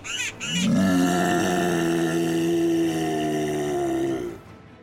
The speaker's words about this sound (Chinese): 大黑熊的一声吼叫，让所有的动物们瞬间安静下来。